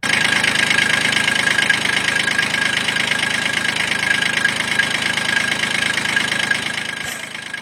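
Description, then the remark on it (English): A tractor engine idles steadily, a loud, continuous rumbling chug with a rapid knocking rhythm and a bright mechanical whine, easing off slightly near the end. “That sound belongs to uh, Evan Osborne, who sent in his tractor.”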